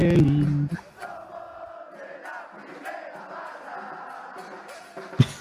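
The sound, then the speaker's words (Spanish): A crowd chants and shouts in a steady roar while drums and cans are beaten in the background, with a few sharper, louder bangs near the end. “escucha cómo le pegan a los botes de cómics. School y de School, 65 pesitos, dice saludos viejos. Eh, son unos tambores horribles.”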